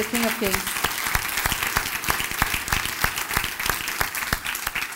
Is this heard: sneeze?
no